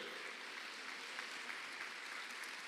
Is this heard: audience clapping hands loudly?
yes